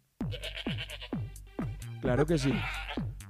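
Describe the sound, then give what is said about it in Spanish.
A person imitates a goat's bleating with a string of quick, wavering nasal bleats, fairly loud, followed by a brief spoken phrase. “y antes de hacer su cosa, quiero ir un poquito de changa porque ya le trajeron la cabra que él va a sacrificar. ¿No? Entonces tú oyes, en esa casa se oye así.”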